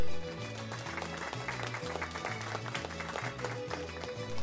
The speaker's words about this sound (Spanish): Aplausos para ella.